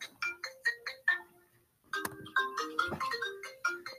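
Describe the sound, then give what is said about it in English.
A bright electronic FaceTime video call ringtone plays a repeating melodic pattern of short, chiming tones, pausing briefly before the jingle starts again, clear with no one talking over it. “I'm FaceTiming hit you because you were on a freaking call. Look at your phone, bro.”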